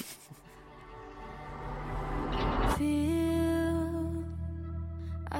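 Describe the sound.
A new rock song, released today, kicks off on the Mix Megapol radio station: a noisy, swelling build-up rises for a few seconds, then a loud sustained chord hits as a singing voice comes in over it.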